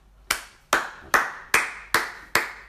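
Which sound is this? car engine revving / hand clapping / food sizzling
hand clapping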